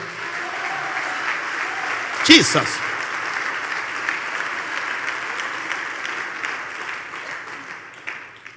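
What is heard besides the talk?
audience applause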